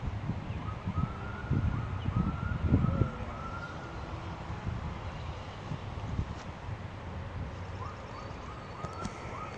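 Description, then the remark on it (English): Faint sirens wail in Brockton, their rising and falling tones drifting steadily beneath a low, gusty wind rumble, with a few brief bird chirps near the end and no voices. “I also hear some sirens in the background, like you know, we are in Brockton”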